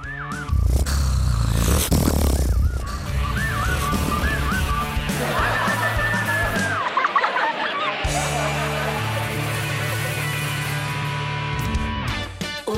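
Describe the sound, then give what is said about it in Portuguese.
Someone imitates loud snoring with their voice, producing rough, rasping snorts and breathy grunts over a continuous background that stays fairly loud throughout, in a reading of the Portuguese story Uma Aventura no Palácio da Pena. “E ele, envergonhadíssimo, não teve outro remédio senão roncar.”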